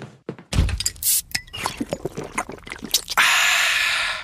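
A Coca-Cola can cracks open with a sharp hiss, followed by a few clinks and thunks, then a steady fizzing pour of the Coke fills the last second. No voices.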